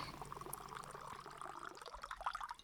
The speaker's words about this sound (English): I realized like two weeks ago there was an episode I forgot to do the water pour, and now the whole world is off its axis.